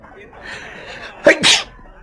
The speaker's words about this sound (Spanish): vaya, ya he cogido otro catarro. Y los estornudos me pueden delatar.